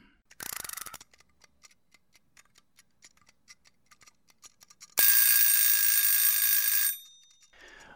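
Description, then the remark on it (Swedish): A brief ratcheting wind-up of a kitchen egg timer, started for an hour of research, then steady quick ticking for several seconds, ending in a loud metallic bell ring that lasts about two seconds and fades. “Bra, men då drar vi väl igång eh, äggklockan som du brukar säga och gör vår timmes research om Scania.”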